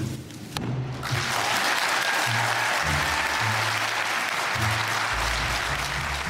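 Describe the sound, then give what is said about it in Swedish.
Sustained applause in the Swedish parliament (Riksdag) chamber as Magdalena Andersson is narrowly elected Sweden's first female prime minister, a dense steady clatter of many hands clapping at once, loud and continuous throughout. “Socialdemokraternas partiledare Magdalena Andersson tog tårögd emot applåder när hon med minsta marginal valdes till Sveriges första kvinnliga statsminister.”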